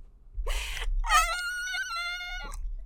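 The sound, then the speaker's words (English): A breathy gasp, then a single thin, very high whistle-register sung note held for about a second and a half, strained and wavering slightly, with no talking. “You want to hear my my whistle notes?”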